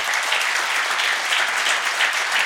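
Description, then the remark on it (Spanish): An audience claps steadily together for the Lord, a dense, even wash of many hands sustained for the whole stretch with no voices rising above it. “Vamos a un aplauso al Señor.”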